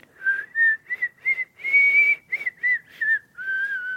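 A short tune of about ten clear notes with brief gaps between them, one held longer in the middle, is played up close on a recorder, with no talking.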